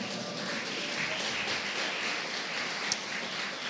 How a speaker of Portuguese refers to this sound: Não sei se vocês davam uma salva de palmas para Jesus, porque.